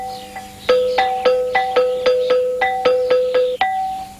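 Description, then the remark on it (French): Stone bells of an Ethiopian Orthodox rock church are struck in a steady rhythm calling to prayer, about nine clear, ringing strikes alternating between two pitches. Each note rings briefly before the next. No voices. “Les cloches de pierre qui appellent à la prière sont uniques elles aussi, tout comme les danses et les chants rituels que l'on ne connaît sous cette forme que dans la liturgie orthodoxe éthiopienne.”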